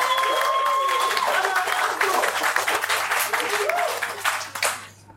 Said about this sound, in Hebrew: יש לנו מלא אנשים נהדרים בקהל, תנו איזה מחיאות כפיים לעצמכם על זה שהגעתם.